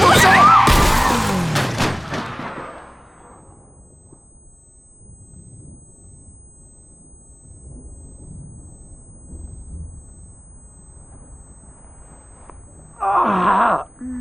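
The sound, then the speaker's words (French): A car hits a person with a loud, violent crash right at the start, the impact ringing out and fading into a low, quiet rumble, before a short pained groan near the end. “Qu'est-ce qui s'est passé oh, On a percuté quelqu'un.”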